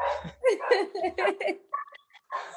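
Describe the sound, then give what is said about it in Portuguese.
A dog barks several times in a quick, fairly steady rhythm, the barks moderately loud, with some brief voices or laughter mixed in between. “Então o cachorro entrou aqui no, no ritmo.”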